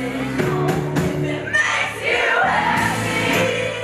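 A singer belts out a cover of a pop song over a full live band at a 2018 concert in Brooklyn, the voice loud and strained against steady drums and guitars, with an open, echoing sound.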